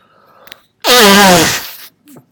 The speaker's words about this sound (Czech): Mě už se za, smr- začíná já se smrknu.